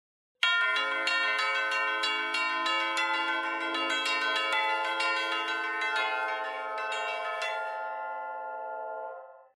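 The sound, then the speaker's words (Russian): Orchestral tubular bells, played with the pedal, struck rapidly in overlapping strokes, imitating a church bell peal; the tones ring on and blend together, fairly loud, with no voices, before the strikes stop and fade. “Мы часто изображаем колокольный звон, то есть”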